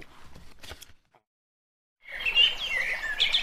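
A short logo jingle for the KBS show Reporters Reading Comments, made of bright, high bird chirps and tweets, loud and densely layered, after a brief noisy burst and a second of silence.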